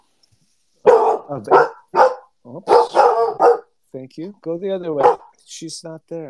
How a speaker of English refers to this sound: I'm so sorry. That is my dog announcing my wife's arrival.